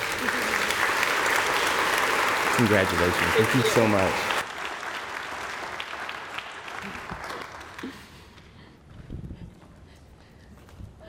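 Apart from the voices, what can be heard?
audience round of applause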